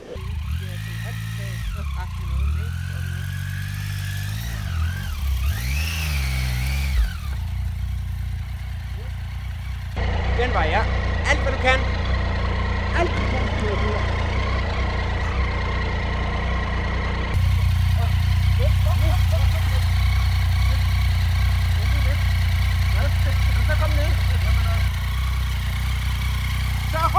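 An off-road motorcycle engine runs, revving up and down in swells during the first few seconds before settling into a steady, throbbing idle that continues to the end.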